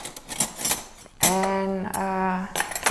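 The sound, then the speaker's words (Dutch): Metal cutlery clatters and clicks as knives are picked up to cut cucumbers, followed by a sustained, steady ringing tone for over a second before brief clinking returns. “pak wat messen en ik ga komkommers snijden voor mijn kleine voor naar school.”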